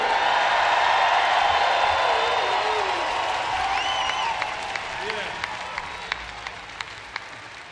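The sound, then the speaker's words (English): A large audience applauds and cheers loudly, with whoops and whistles rising above a dense wash of clapping that gradually thins into scattered individual claps near the end; a concert audience at the City Limits Festival cheering for the show's crew. “So let's hear it for the best crew on the planet.”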